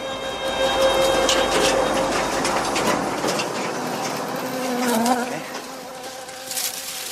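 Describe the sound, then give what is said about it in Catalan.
A fly buzzes steadily for several seconds in a scene from the TV series Cuéntame, its droning hum wavering in pitch over a noisy background, with no one speaking. “Aquí de moment s'escolta una mosca i un vamos, vamos.”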